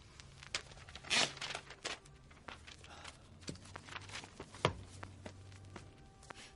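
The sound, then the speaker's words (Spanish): Typewriter keys clack in irregular, sharp strikes as a person types during the day, with a couple of louder hits standing out, over a faint, steady low hum. “De día, un tocadiscos gira sin cesar mientras Jake escribe a máquina.”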